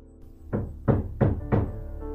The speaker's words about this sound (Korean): 그런데 하필 제가 학생들을 지도해야 될 곡이 자살 직전에 부르는 여자곡이어서 감정에 빠져서 연습하고 있었는데 그때 제 문을 두드렸던 노크 소리.